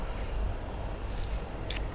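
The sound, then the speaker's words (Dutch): A large pea pod being split open by fingernails to reveal peas that are already rather big: a quick cluster of small, crisp snapping clicks followed by one sharper crack, set against a low, steady background rumble with no talking. “Dat is het peulen van de aard. Dat is de peul, de peul verwijderen.”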